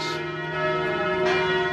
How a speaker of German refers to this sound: Diese Glocke läutet auch das Ende dieser Radioreise ja. ein.